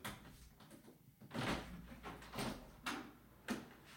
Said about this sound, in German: hier in Hamburg geht es richtig ab. Ja, es stürmt. Es stürmt wie Sau und ich überlege gerade, ja, ich mache mal ganz kurz das Fenster auf und dann könnt ihr das mal hören, wie das hier klingt, weil man denkt zum Teil, die Welt geht unter.